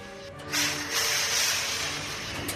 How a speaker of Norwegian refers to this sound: Og det han freser i full fart over ei hvit skjorte med dampstrykerne.